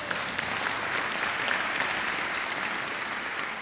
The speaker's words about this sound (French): Puis au signal de l'artiste, l'orchestre se lève et salue le public qui les applaudit.